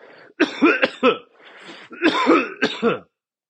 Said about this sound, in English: got a frog in my fucking throat this time. Shit.